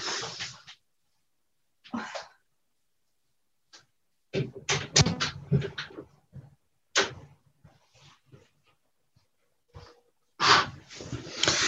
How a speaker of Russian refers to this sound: Сейчас, одну секунду, открою окно.